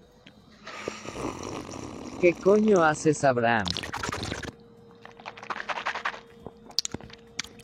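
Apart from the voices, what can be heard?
drinking water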